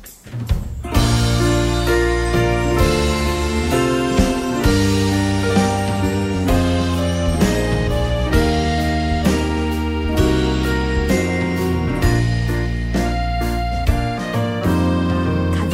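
A pop song plays at full, steady volume after a brief quiet start: a dense band arrangement with bass, chords and bright accents, and no voices yet in this stretch.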